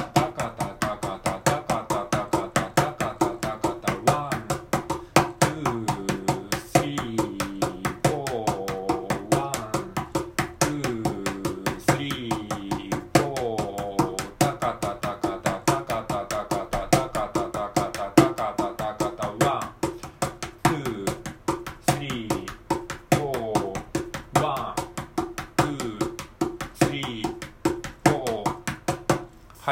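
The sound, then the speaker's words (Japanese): A mini cajon is tapped in a steady, rapid 16-beat shuffle, each beat divided into six notes (sextuplets), crisp hits running throughout, with a man's voice talking over the beat. “ミニカホンを叩いてみた⑩〜16ビートシャッフル”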